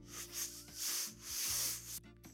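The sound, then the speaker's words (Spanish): A voice imitates a long slurp of mate: a breathy, hissing sucking noise that swells and fades in about three waves before cutting off abruptly, with no words spoken. “Luego de un largo sorbido de mate,”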